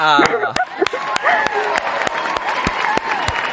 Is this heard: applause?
yes